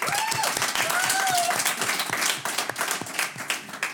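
An audience bursts into loud, dense applause, many hands clapping steadily throughout, with a couple of whistles rising over the clapping early on.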